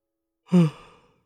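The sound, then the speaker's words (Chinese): A single voiced yawn in a narrated story, from a character keeping vigil at night in a mourning tent: a short, loud tone that slides downward in pitch, then trails off into a softer breathy exhale lasting about half a second, with no talking around it. “夜晚，灵棚里的灵烛忽明忽暗，正在守灵的小磊打了个哈欠。”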